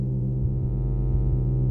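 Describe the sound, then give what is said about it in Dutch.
A soft, steady buzzing hum, low-pitched with stacked harmonic overtones, droning continuously at an even level with no voices. “Plotseling wordt de stilte verbroken door een zacht gezoem.”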